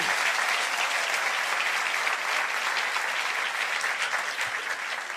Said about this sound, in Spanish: Aplauden una vez más.